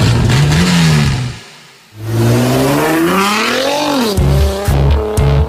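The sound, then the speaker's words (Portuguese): A car engine revs hard at high RPM, its pitch climbing and falling in loud sweeps, with a brief drop-off midway before roaring back and ending in rapid, pulsing bursts. “Alta rotação.”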